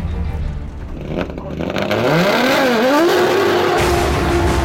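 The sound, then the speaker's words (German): An all-wheel-drive rally car engine revs hard and accelerates as the driver shifts down into the lowest possible gear, its pitch climbing and dipping through a shift before settling into a loud, sustained roar. “schaltet zurück in den kleinstmöglichen Gang, lässt das Auto fliegen auf Anhieb, als hätte er nie was anderes gefahren.”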